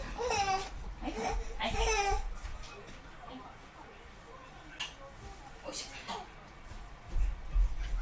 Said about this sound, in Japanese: ちょっとお待ちくださいね。息子が泣いてるので抱っこしてきます。